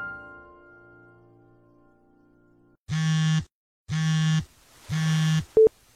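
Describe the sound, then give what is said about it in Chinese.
A telephone ringback tone as a call is placed to a shop owner's mobile phone: three loud, buzzy low-pitched beeps with even pauses between them, then a brief high chirp at the end. A faint steady hum comes before the beeps, and no one speaks. “嘿嘿，那我打电话给你哦。”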